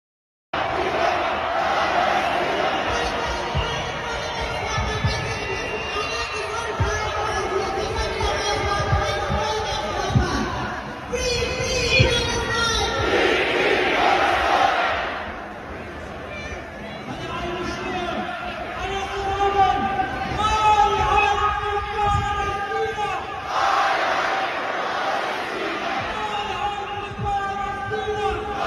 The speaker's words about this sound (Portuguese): As manifestações tomaram as ruas de Berlim, numa marcha pró-Palestina. Vamos ver as imagens?